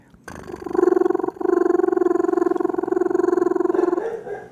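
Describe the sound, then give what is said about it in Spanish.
A voice imitates a rapid, rhythmic tapping with a loud, buzzing stream of pulses. It breaks once briefly, then continues steadily for several seconds before trailing off. “Y en ese momento yo empecé a escuchar un sonido que era como un, golpeteo. Yo lo voy a, decir, a ver cómo, voy a, voy a narrarlo, a ver si me acuerdo.”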